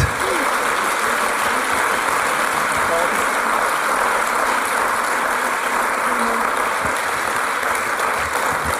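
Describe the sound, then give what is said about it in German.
An audience applauds steadily, a dense, even wash of clapping that holds at a loud, constant level for the whole stretch without fading or building. “Gebt ihnen doch einen Applaus.”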